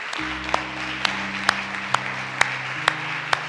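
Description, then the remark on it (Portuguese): A church audience applauds in praise of Jesus Christ in a dense, steady wash of clapping, with a sharper rhythmic clap landing about twice a second over sustained low keyboard chords. “E uma vez que já estés aí em tu lugar, por que não das um outro aplauso a Jesus Cristo Ele merece, verdade?”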